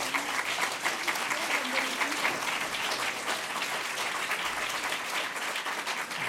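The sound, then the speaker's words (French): Sustained applause from an audience, a dense wash of many hands clapping at steady volume throughout, with no clear pauses or voices standing out. “Je applaudir.”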